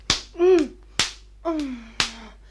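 Three sharp, loud slaps across a woman's face land about a second apart to bring her round, each a crisp smack, with a person letting out short groaning moans in between.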